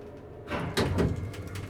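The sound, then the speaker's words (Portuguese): An elevator comes to a halt with a soft thud, then its doors slide open onto complete darkness in a smooth, whooshing rush that lasts about a second, fairly quiet, with no voices. “O elevador então parou e abriu suas portas para uma escuridão completa.”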